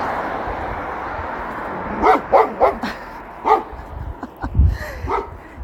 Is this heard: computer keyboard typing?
no